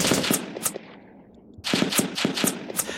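Rapid bursts of automatic machine-gun and Kalashnikov gunfire, a dense volley of sharp shots, a brief lull, then another fast run of loud cracks, as about 300 Ethiopian soldiers on a battle line open fire in an attack.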